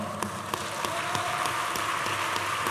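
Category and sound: crowd, audience clapping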